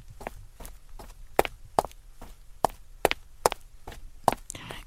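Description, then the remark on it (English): Steady footsteps of someone walking home at almost 8 p.m., at an even pace, about a dozen crisp steps on a hard surface, with a low background rumble and no voices. “It's almost getting to 8 o'clock p.m., and I am still a few more steps away from home to get to my computer to listen to CNT Radio's Cosmopolitan Culture Club.”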